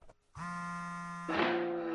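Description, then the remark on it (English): A mobile phone rings in a pitch-dark room with a loud, buzzy electronic tone, holding one steady pitch and then stepping up to a higher note. No talking. “That's my phone.”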